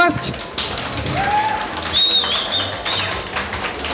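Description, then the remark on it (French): An audience applauds a conference speaker steadily, dense clapping filling the whole stretch, with a few shrill whistles cutting through partway and a murmur of voices underneath. “Je vous demande un tonnerre d'applaudissements pour notre conférencier star”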